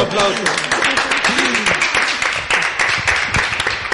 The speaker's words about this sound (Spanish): Venga, perfecto, Un aplauso.